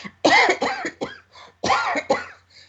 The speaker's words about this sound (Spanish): un momento que voy a toser, ¿eh?